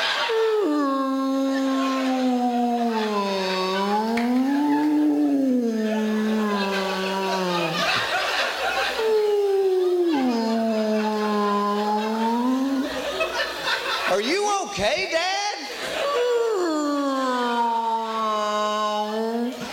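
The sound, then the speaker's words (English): A human voice imitates humpback whale song: long, wavering moans that swoop slowly up and down in pitch, one after another, loud with no talking in between. “Dad, When he's in the bathroom, it sounds like songs of the humpback whale.”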